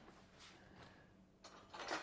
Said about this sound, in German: in die Küche und holt aus der Schublade einen Dosenöffner. Und zwar den One Touch.